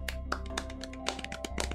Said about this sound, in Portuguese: Sensacional. Palmas pra ela.